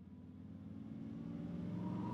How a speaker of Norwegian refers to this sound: En dag kjører en svart bil ned til den underjordiske parkeringen under presidentens kontor i Cape Town.